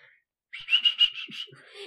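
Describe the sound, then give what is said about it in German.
A person whistles a quick birdlike call, about six rapid pulsing high notes in a row, clear, imitating a bird with no talking over it. “mein verrückter Vogel der immer so.”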